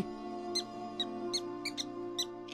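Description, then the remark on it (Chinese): A mouse in a house squeaks in broad daylight in a run of about eight short, high-pitched chirps at irregular intervals, faint but distinct above a steady low hum, with no talking. “哦，什么声音？好像是老鼠。”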